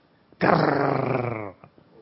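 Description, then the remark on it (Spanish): A voice imitates the little noise a car made when it was started: one loud, rough, growling drone held steady for just over a second, then cut off, with no other talking around it. “Es como el carro empezó a tener un ruidito, ¿no? Encendía yo el auto y hacía...”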